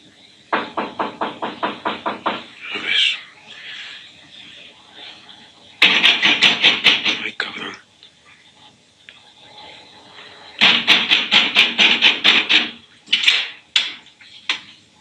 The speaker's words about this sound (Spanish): Ay, güey, están tocando la puerta.